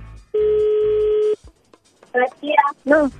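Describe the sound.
A single steady phone tone sounds for about a second, like a line ringing through a receiver, followed after a short pause by a brief burst of someone speaking.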